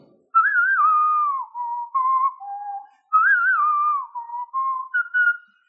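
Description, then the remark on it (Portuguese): A clear whistled melody in the style of a western film theme, two similar phrases with sliding notes and brief pauses, no talking. “É uma das, uma das músicas mais conhecidas, o western, né?”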